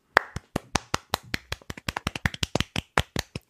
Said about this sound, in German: Einmal Applaus.